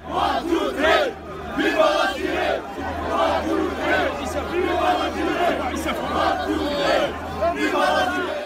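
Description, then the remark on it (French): A large crowd at a Hirak protest chants the slogan "One, Two, Three, Viva l'Algérie" in unison, loud, the massed voices rising in rhythmic bursts and never letting up for the whole stretch. “One Two Three Vive l'Algérie est encore largement utilisé dans le cadre sportif évidemment, mais aussi dans les manifestations du Hirak ou même dans la vie quotidienne”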